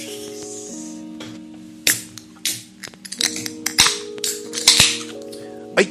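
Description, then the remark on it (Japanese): Beer cans cracked open one after another for a toast: a series of sharp pops and short fizzing hisses, irregularly spaced over a steady low hum, with no talking. “まあまあまあ、その緊張をね、ほぐすためにも、ビルでまず乾杯しますか。”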